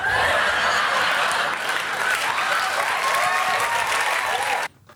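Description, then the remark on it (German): A crowd claps and cheers loudly and steadily for several seconds, with whoops and bright shouts rising over the dense applause before it cuts off abruptly near the end. “Und das Publikum geht aber crazy.”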